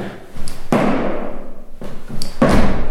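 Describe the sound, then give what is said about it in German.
Two heavy thuds as one person jumps and lands hard on a wooden floor to imitate thunder, each with a booming, rumbling decay that lingers, loud. “Äh, da haben sie alle gleichzeitig sind in die Luft gesprungen und auf der Bühne wieder aufgekommen. Und es gab dann einen riesen Donner.”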